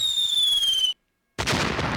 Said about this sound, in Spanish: Y yo creo que va a ser la única vez que me vas a poner este el, cohete y el petardo para la David Miller, pero esta semana se lo merece, papá.